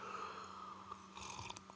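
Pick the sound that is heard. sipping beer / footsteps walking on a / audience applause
sipping beer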